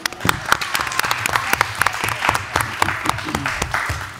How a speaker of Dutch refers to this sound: Nou, dat was ons tweede spelletje, jongens. Applaus.